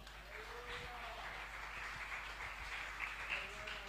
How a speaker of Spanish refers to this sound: Dale ese aplauso al Señor.